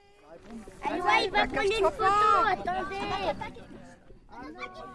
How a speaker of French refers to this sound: Et bien sûr, le gazouillis d'enfants surexcités.